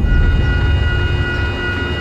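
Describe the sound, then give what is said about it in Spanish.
A metro train rumbles steadily through the Willowbrook and Palmer metro station, a heavy low roar with faint high-pitched steady tones above it, holding a constant loudness for the whole two seconds. “Nosotros nos encontramos aquí en la estación del metro de Willowbrook y Palmer.”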